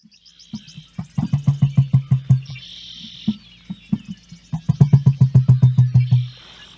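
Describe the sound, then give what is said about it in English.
Low, hollow booming thumps from an emu come in two long runs of rapid, drum-like pulses that build and fade, with faint high chirps of birds or insects in the background. “I'm going to give you all a little sample cray-cray. of what these fucking things sound like.”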